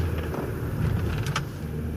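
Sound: car approaching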